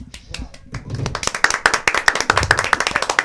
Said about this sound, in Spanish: Ah, eh, eh, hay que aplaudirle porque si no nos cancelan a toditos. Pues. hay que aplaudir esa, lectura comprensiva, hay que aplaudirla.